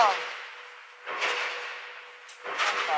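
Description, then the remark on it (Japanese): Construction noise comes in two harsh, hissing surges: a long grinding roar starting about a second in and another loud burst near the end, with a quieter noisy wash between and no voices. “なんか急に工事が始まったね。すごいな、これ。”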